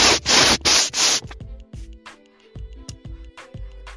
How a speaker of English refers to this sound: is someone cleaning the phone with a vacuum?